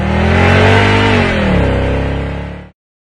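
A car engine revs loudly and accelerates, its steady droning pitch climbing and shifting for a few seconds before cutting off abruptly. No voices are heard.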